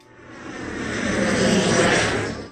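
An airplane passes overhead, its engine roar swelling steadily to a peak and then starting to fade, a broad rushing drone with no voices.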